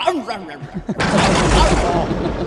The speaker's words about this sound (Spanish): ¿Quién eres con tantos petardos? Esto parece la falla de Valencia.